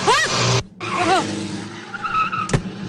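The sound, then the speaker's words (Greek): Tires squeal in sharp, rising skids as a car driven by a rally driver is thrown around at speed, its engine roaring loudly, followed by a brief clunk near the end. “εγώ είμαι ραλτζής. Τι είσαι? Ραλτζής, ραλτζής, τρέχω σε ράλι, ξέρετε, μέχρι τώρα έχω πάρει και 20 κύπελα.”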